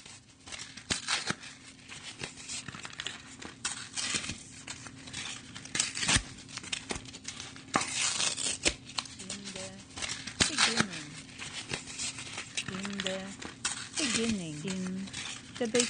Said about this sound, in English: Do you hear the sound of paper, paper from a tree, tree from the earth, the earth that was created in the beginning?